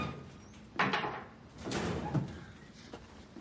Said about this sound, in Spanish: Palpa sobre el armero y coge una llave. Abre el armero.